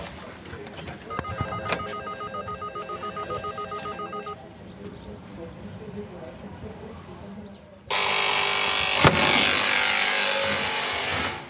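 A doorbell at a residential apartment block in Germany rings with a bright, warbling electronic tone for a few seconds, then a quiet pause. A loud, harsh, steady buzz follows and lasts to the end.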